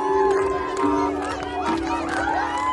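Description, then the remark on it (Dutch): A crowd lining a road near kibbutz Hatzerim in Israel cheers, whoops, claps and waves Israeli flags on a Friday evening in the dark as five ambulances carrying freed hostages drive past, a dense, continuous wash of many voices and applause with a steady droning tone underneath. “Ze joelen, ze juichen, ze applaudisseren en ze wapperen met vlaggen.”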